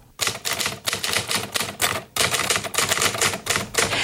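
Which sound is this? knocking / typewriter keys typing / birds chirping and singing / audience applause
typewriter keys typing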